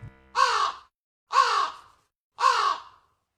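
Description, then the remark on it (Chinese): A crow caws three times, each call harsh and raspy, evenly spaced about a second apart with silence between them. The calls are loud and clear, with no talking. “这画面就差一阵萧瑟的秋风，一片掉落的黄叶和一声尴尬的乌鸦叫了。”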